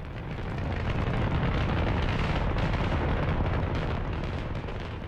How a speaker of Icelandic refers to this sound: Þegar Saturn V hóf sig á loft, gast ekki bara seða, þú gast ekki bara herta, þú fannst fyrir því.